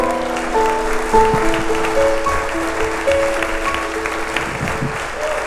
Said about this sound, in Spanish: Ah, alguien le puede dar un aplauso al que vive, al que reina.